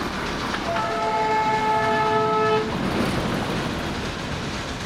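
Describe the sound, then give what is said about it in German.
A steam train of the Darjeeling Himalayan Railway, dating from 1881, rumbles steadily along as its whistle gives one long, bright, sustained blast for about two seconds, then the churning, hissing noise of the locomotive carries on alone. “Das dampfende Wahrzeichen der Stadt kommt 50 Jahre später hinzu. Die Darjeeling Himalayan Railway von 1881 ist bis heute mehr als nur eine Touristenattraktion, eine Lebensader über 80 Kilometer lang, aus der Talebene in Siliguri über 2000 Höhenmeter”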